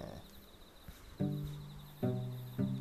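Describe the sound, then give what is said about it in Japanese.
A faint, steady insect trill hums high throughout, heard while walking around a room, interrupted by three louder, resonant thuds that ring briefly and fade. “なんかじゃあ部屋をこのままうろうろしながらね猫探しは終わりましたがこの歩きながらラジオを撮るという虫の声が聞こえますね”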